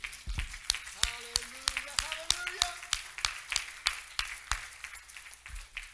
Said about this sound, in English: God, I want you clap your hands to the Lord. He's worthy.